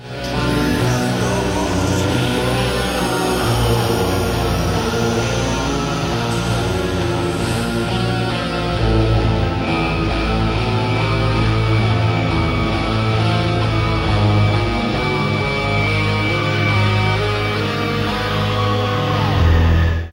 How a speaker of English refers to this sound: So this one uh, a is properly moody and creepy intro with, yeah, with yeah. screams in the background, quite a doomy bass sound, Yeah, yeah. Um, but quite a bit of melody to it.